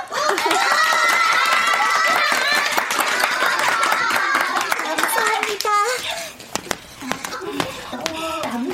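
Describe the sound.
A burst of clapping from a group to cheer on a kindergarten child, dense and steady for several seconds, mixed with children's cheering and chatter, then thinning out into scattered claps and voices.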